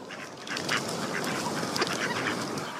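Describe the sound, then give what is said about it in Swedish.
A flock of ducks quacks continuously, many overlapping calls forming a dense, noisy chorus at steady moderate loudness, with no speech; an MP3 sound file played in the background of a radio show. “Lägg in anka.mp3 i bakgrunden här.”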